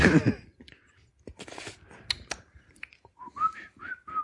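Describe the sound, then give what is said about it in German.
A person whistles a short ringtone-like melody of a few quick, stepping notes, preceded by a brief throaty burst and scattered clicks and rustles. “ja, pfeift gerade nicht so.”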